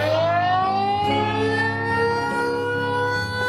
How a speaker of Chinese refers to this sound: 阿公还记得以前上课到一半会听到呜呜呜的警报声，如果声音比较短，是敌人侦察机来调查；声音如果持续拉长很久，就代表要真的丢炸弹，